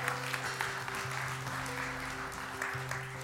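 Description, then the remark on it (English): An audience at Lutheran Church of Hope applauds during a service, praising God, with dense, steady clapping that holds at an even loudness for about three seconds, while a faint sustained low tone hums underneath. “You can clap for that.”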